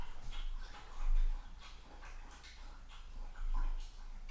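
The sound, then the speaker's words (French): A dog whimpers and lets out a few short, yelping barks somewhere in the background, faint and irregular, with occasional low thumps underneath. “Le chien de retour, vous devez l'entendre en arrière-plan.”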